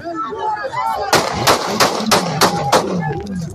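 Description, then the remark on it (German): A rapid series of about six sharp gunshots cracks out in an irregular rhythm on a street in Ecuador, fired at a presidential candidate making his way to his car after a campaign appearance on a Wednesday evening in early August, with a murmur of voices and street noise before and during the shooting. “nach seinem Auftritt an jenem Mittwochabend Anfang August auf die Straße tritt und sich den Weg zu seinem Auto bahnt, fallen Schüsse.”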